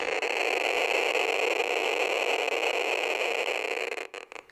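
A Geiger counter next to a radioactive old diving watch from the 1960s crackles so rapidly that its clicks blur into a loud, steady hiss, unbroken, then cuts off near the end, leaving a few scattered clicks.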